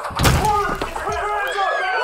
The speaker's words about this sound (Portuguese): e a porta é logo empurrada com grande violência.